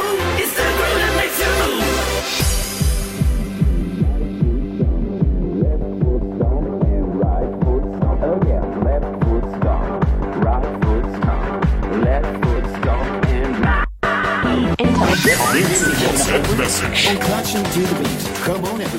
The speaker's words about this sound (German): Subscriber Alarm. Das meinte ich. Das meinte ich mit Dings der Bums.